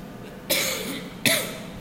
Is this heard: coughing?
yes